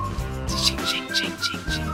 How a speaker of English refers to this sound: If you listen closely, you can hear some jingling bells.